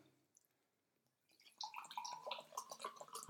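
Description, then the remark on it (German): Water pours into a glass in a steady trickling stream, the bright gurgling rising in pitch as it fills, after a brief quiet start. “Gieß mal ruhig ein.”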